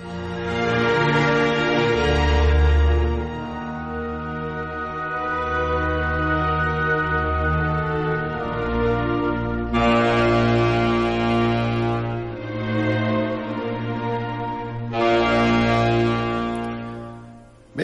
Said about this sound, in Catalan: la harmònica de cristall o harmònica de vidre, eh, que era un instrument que, que es basava en això de, de fer sonar copes amb els, amb els dit banyats, copes de vidre amb els dit banyats.